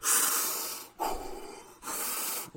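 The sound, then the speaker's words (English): A voice imitates a man's deep, forceful breathing exercises: three long, loud breaths, alternating airy inhales and exhales in a steady rhythm, with no speech. “Our main characters, and they go in, and our our, our main guy's like doing breathing exercises.”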